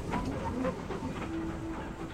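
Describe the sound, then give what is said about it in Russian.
A train approaching from the other side of a bridge rumbles along the rails with a slow, steady, rhythmic clatter, loud, and no voices over it. “Но не из той дали – куда устремил он свои взоры, приближался поезд.”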